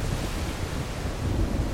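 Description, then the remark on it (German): Rough ocean surf churns beneath gusting wind, a steady, loud roar with heavy low-end rumble and no letup across the short stretch, like a storm at sea. “Und jetzt hängen sie schon seit Stunden in einem heftig wütenden Sturm fest.”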